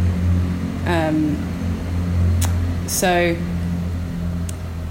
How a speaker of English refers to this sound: Sorry about the train in the background.